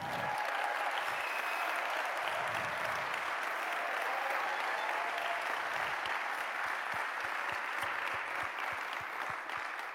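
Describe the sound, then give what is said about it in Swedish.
An audience bursts into sustained applause in honour of a man, dense and steady for the full stretch, with many hands clapping at once and no voices rising above it. “Ska vi ge honom en riktigt, riktigt stor applåd?”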